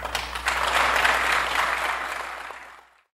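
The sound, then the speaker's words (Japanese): Sustained applause from an audience at the end of Chairman Osamu's farewell speech: a dense, steady patter of many clapping hands that holds for nearly three seconds before tapering off and fading out. No one speaks. “挨拶の最後はこんな言葉で締められまして笑いと拍手に包まれました”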